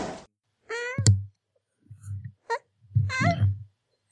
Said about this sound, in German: War das die Katze